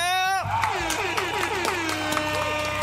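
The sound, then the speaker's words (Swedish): A sound effect: a short, brassy horn toot opens, then gives way to a burst of applause and cheering from a crowd, with claps and whooping voices continuing loudly to the end. “Vi kör en applåd och en liten töta på det!”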